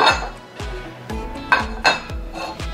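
Four plates are set down on a table one after another while setting the table, one for each person, a series of about six solid clinks and thuds at a steady pace, with no talking.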